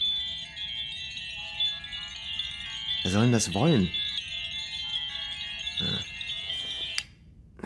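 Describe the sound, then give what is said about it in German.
Bright electronic wind chime tones from white plastic boxes with a button ring in a steady, overlapping drone for several seconds, fairly loud, while a person briefly speaks over them before the tones cut off near the end. “Äh, elektrische Windspiele nennt er die Dinger. Das sind literally einfach weiße Plastikdosen mit einem Knopf, die dieses hässliche Geräusch machen.”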